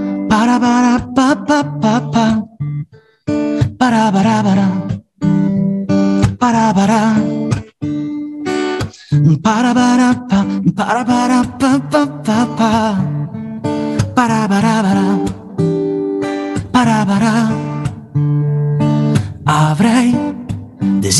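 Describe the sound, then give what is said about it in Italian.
A lively, upbeat song with a bouncy, cheerful rhythm plays loudly and steadily, full instrumentation and what sounds like a singing voice carried over a driving beat. “in una ritmica molto, molto allegra, quindi non è nulla di, di, di, di, di, triste, perché secondo me i messaggi a volte vanno dati anche così, e se vi fa piacere ve la faccio ascoltare.”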